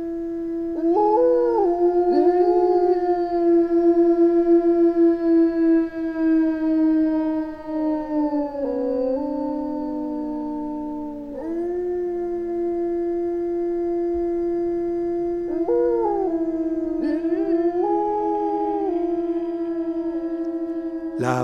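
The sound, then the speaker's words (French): Three wolves howl together in long, overlapping sustained tones that rise, hold and slide against one another. Their voices form a continuous polyphonic chorus of close, clashing pitches with micro-intervals, with no talking. “Soyons attentif à ces micro-intervalles qui naissent de la superposition polyphonique de ces trois voix de loup.”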